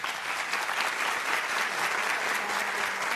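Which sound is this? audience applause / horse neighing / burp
audience applause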